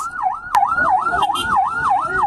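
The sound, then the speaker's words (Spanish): An ambulance siren wails in a quick, steady up-and-down sweep, fairly loud, over a low rumble of road noise with a sharp knock near the start. Survivors amid rubble are rushing the gravely injured to the ambulances. “Corrieron con los más graves para alcanzar las ambulancias.”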